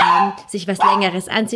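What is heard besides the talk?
dog barking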